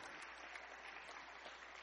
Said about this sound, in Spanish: Denle ese aplauso al Señor, hermano. Amén.